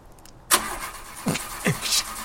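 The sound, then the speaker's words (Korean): A car engine cranks with a sharp burst, then strains through two more rising starter pulses and a revving surge over a steady mechanical rumble. “걸려라 걸려. 제발 걸려.”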